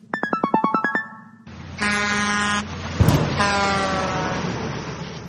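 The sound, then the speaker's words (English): A quick run of short beeping toots gives way to a loud, long truck horn blast, then a sharp thump as the truck hits a little bird, and another sustained honk as the truck rumbles past. “The little bird just got hit by the truck.”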